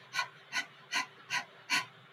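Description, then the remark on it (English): A person pants quickly through an open mouth, dog-style, demonstrating the start of a breathing exercise, with five short, breathy huffs in an even rhythm, fairly quiet, with no talking. “And she says you start out by panting, like out of your mouth like a dog”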